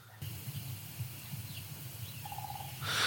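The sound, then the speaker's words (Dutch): A woodpecker in a garden drums on wood in a fast, sustained roll lasting a few seconds, marking territory rather than making a hole. It sounds low, with faint outdoor ambience and a brief thin tone near the end. “Nou, de, de, de roffel is snel genoeg voor, eh, voor een specht.”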